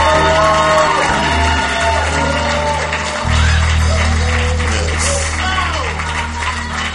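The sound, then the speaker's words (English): A church audience claps and cheers loudly for people going with the pastor, with shouts and whoops rising over a steady wash of applause that carries on for about seven seconds, joined by a low sustained tone underneath. “Oh, is that all you can clap for?”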